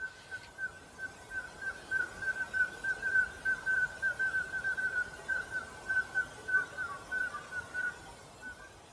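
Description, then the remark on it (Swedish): Irregular high piping calls from a flock of common scoters flying over, short whistled notes sputtering like Morse code in a steady stream over a low rumbling background. “Det låter nästan som gammeldags Mosesignaler. Alltså lite oregelbundet pipande.”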